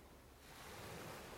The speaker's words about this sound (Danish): Og havet, du hører, er Vesterhavet indbegrebet af Hanstholm og Thy og hele den danske vestkyst.